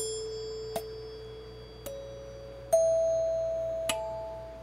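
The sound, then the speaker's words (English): An old electric doorbell chime, said to date from 1941, strikes four times at uneven intervals, each hit leaving a sustained ringing tone that shifts pitch between strikes, with no talking. “for uh, ringing an old doorbell. And I think he said it was from 1941”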